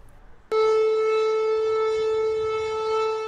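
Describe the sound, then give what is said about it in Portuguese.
A civil defense warning siren blares loudly during a nationwide siren test in Russia meant to alert residents, starting abruptly and holding a steady, sustained tone with strong harmonics for several seconds, with no voices present. “Sirenes soaram pelo país para chamar a atenção dos moradores.”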